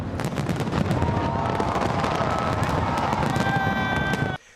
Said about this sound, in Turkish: Binlerce kişi havai fişek gösterileriyle yeni yılı kutladı.